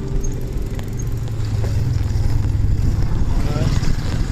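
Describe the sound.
A steady, deep rumble fills the cabin of a moving car, with road and engine drone holding constant throughout and faint voices murmuring beneath it.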